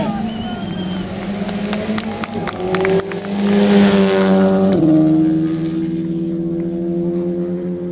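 A blue-and-white Skoda rally car driven by Jari Huttunen roars, revving hard as it sweeps at speed into a barn corner, with a sharp pitch drop midway before a steady, fading drone carries on.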